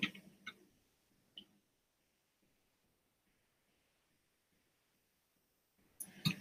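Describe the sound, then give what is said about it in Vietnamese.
Crisp computer mouse clicks: a few isolated taps early on, a long near-silent pause, then a quick burst of clicks at the end. No one speaks. “à, cả con chuột nó sống lại chưa à, con chuột nó sống lại một chút xíu tiếp tục”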